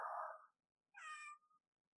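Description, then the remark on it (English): A voice imitates a cat, giving two short meows in quick succession: a breathy first one, then a brighter, rising second meow with a puzzled, questioning tone. No other talking. “meows, confused.”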